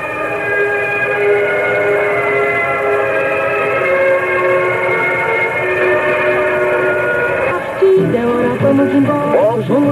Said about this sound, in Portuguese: Mas nós, como somos educados, vamos ouvir respeitosamente o hino nacional argentino.